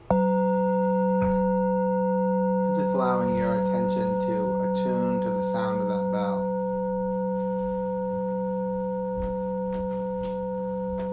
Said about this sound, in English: the ring tone of that, of that bell. Listening.